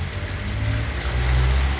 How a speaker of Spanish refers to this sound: En cambio, tú ahorita puedes incluso hasta grabar el agua, weón. Las partículas del agua que están aquí bajando por esta cadena de la lluvia, weón.